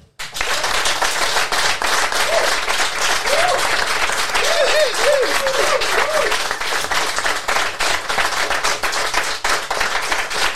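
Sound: audience applause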